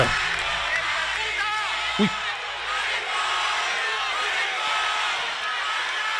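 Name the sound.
crowd shouting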